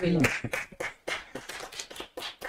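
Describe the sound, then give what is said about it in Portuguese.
A short burst of hand clapping, a run of quick, fairly even sharp claps lasting a couple of seconds, with a voice briefly audible at the start and murmuring underneath. “Uma salva de palmas”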